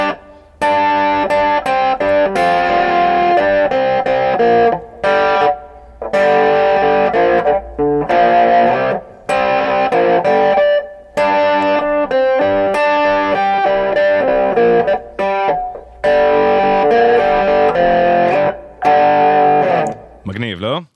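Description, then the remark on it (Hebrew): A distorted electric guitar riff played back slowed down, its dense notes stretched out in loud, repeating phrases about two seconds long, each broken by a brief gap. “בואו תשמעו את, את הקטע הזה בהילוך איטי, ותבינו כמה צלילים נכנסים פה, זה פשוט לא יאומן שזה מתפספס לנו באוזן.”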